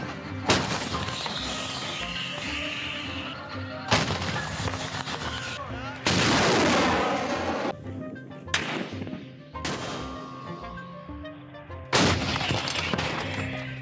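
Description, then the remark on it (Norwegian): Heavy gunfire and artillery booms ring out from war fighting in Deir ez-Zor, with several sharp, loud blasts every couple of seconds over a constant rumbling, echoing background of shooting. “vi kan f.eks. høre litt fra krigføringen i, i Deir ez-Zor her.”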